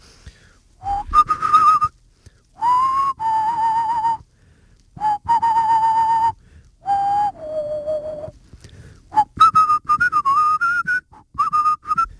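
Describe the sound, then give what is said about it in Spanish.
A person whistles the theme melody of the western film La muerte tenía un precio (For a Few Dollars More), in several sustained phrases separated by short pauses, with sliding pitches and no talking. “Yo soy capaz de silbarla, la silbo desde chico, ¿eh?”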